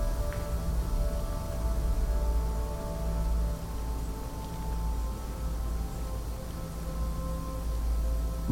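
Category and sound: household object, hair dryer blowing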